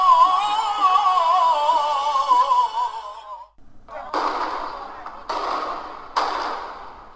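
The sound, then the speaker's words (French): A wavering, tonal outdoor sound gives way to three sharp, loud fireworks blasts set off by protesters in Lebanon to repel the army, each a sudden bang trailing into a rushing, crackling hiss, spaced about a second apart. “Des feux d'artifice pour repousser l'armée.”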